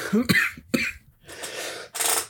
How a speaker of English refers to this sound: I was not coughing at all for weeks, and now all of a sudden that we're recording, it's just going to happen.